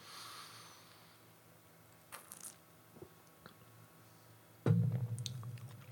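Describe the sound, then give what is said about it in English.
Wet mouth sounds of sipping a beer: faint slurps and smacks with small clicks, then a louder low swallow or murmur near the end. No talking. “Um, we'll uh, I'll have another sip and let you know.”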